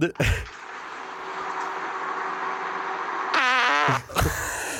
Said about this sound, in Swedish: Det låter som att du aldrig har fisit eller bajsat i hela ditt liv.